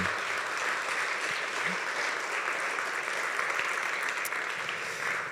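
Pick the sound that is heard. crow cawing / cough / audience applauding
audience applauding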